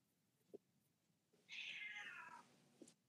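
A single drawn-out meow from a female cat, loud, sliding downward in pitch over about a second, with faint thumps before and after and no talking.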